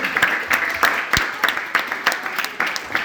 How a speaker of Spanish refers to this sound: Un aplauso.